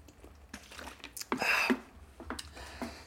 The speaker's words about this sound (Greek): δώστε μου λίγο να πιω λίγο νεράκι.